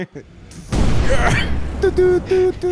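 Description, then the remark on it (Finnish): A sudden, loud explosion bursts in after a brief quiet moment and rumbles on for about a second, followed by short tonal vocal sounds over the fading noise. “Tähän räppi räjähti.”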